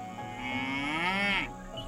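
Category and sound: animal, cow mooing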